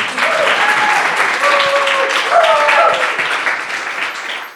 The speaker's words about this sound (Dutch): Word je wel eens met applaus ontvangen? Of is het dan... Eh? Nee, vrij weinig.